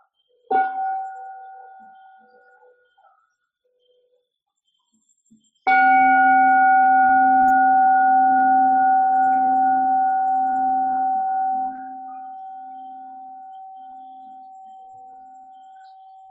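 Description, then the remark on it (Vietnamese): A Buddhist meditation bell is lightly tapped once by a nun, fading quickly, then struck fully a few seconds later, its deep, clear tone ringing out resonant and slowly dying away over ten seconds. “xin sư cô tĩnh một tiếng chuông cho mọi người buông thư”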